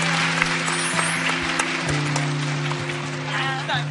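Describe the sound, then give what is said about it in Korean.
A crowd claps steadily for several seconds for three people leaving to catch the last train, a dense, even patter of many hands at a fairly loud level, with a low steady hum underneath and a faint voice toward the end. “네, 막차 시간 때문에 세 분한테 박수 부탁드리겠습니다.”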